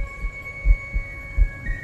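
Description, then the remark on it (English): A heartbeat thumps in deep, muffled paired beats at a steady pace, moderately loud, over a faint constant electronic hum. No one speaks. “That night, I heard her heartbeat. I heard it in my chest, as if her heart was hidden behind mine.”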